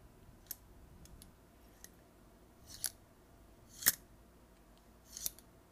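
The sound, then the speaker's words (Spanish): The lid of a plunger coffee pot with a glass beaker and metal base slides along its metal plunger rod back toward the lid handle, giving four short, scraping metallic clicks spaced a second or so apart, fairly quiet, with no talking. “Esto que suena es la tapa que se regresa del émbolo hacia la agarredera de la tapa.”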